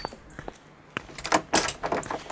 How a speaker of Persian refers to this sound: در زدنش را میشناسم